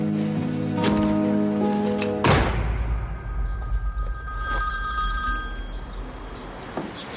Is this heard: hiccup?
no